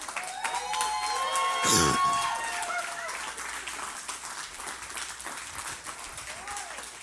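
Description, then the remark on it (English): A church audience bursts into sustained applause for the Lord with scattered cheers and whistles, loud at first, then tapering into a steadier wash of clapping. “By God, stand to your feet and give the Lord a hand clap.”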